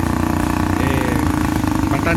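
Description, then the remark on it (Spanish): A motorcycle engine rumbles steadily for the whole moment, a loud continuous low drone with a faint voice speaking over it, as a rider crosses a badly overflowing river in the municipality of Rosita. “ahí un ciudadano que va en, moto y pues lógicamente eh, el río está bastante”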